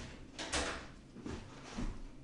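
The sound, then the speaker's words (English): A door is unlocked and pulled open: a soft rattle and scrape up front, then a couple of quieter knocks as it swings, with no talking. “Let me unlock the door.”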